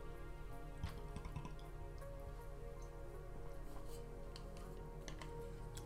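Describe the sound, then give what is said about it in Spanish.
Someone drinks water with soft, irregular gulping and dripping sounds, quiet, over a steady low background hum with no talking. “Estamos adentrándonos a las últimas preguntas y necesito lubricar mi garganta.”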